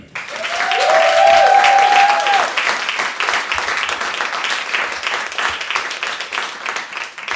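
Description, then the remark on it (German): Loud, dense applause from an audience on a stage fills the whole clip, with a few whoops and cheers rising over the clapping early on before it settles into steady, slightly fading applause. “Ähm, deswegen mit tosendem Applaus hier auf der Bühne zwei Flaschen Wein der Matze.”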